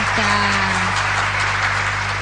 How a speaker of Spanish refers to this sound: Un aplauso para la gente de Morón que está escuchando.